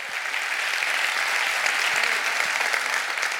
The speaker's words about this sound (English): I want us to give them a great hand clap tonight of appreciation for all they are